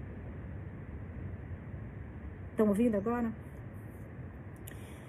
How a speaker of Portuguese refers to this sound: Vocês conseguem escutar o barulho das ondas? No fundo, tá dando uns pá, pá da onda, porque eu acho que o mar vai subir bastante hoje, essa semana, mas eu acho que hoje começa. Eu tô escutando uns estrondo aqui da, da onda batendo, ó.